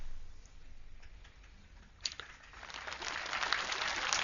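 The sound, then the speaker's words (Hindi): After a quiet start, an audience at a satsang (spiritual discourse) begins clapping midway and swells into dense, steady applause that grows louder toward the end, with no voices over it. “बस तालियां जाना नहीं बजाओ ये ऊंची बात सुनो”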